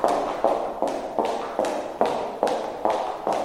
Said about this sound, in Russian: Есть ударный шум, который вы все прекрасно знаете, особенно очаровательные наши таятницы прекрасного пола. Это шум каблучков.